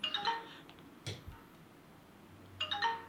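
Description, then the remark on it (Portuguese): Two bright electronic MSN Messenger new-message notification chimes, one at the start and one near the end, with a brief soft thump between them and no one speaking, as the messenger is opened after 10 years and messages pour in. “Epá, só Abrimos agora o, nosso Messenger, passado 10 anos, e pá, isto é uma cascata de, mensagens.”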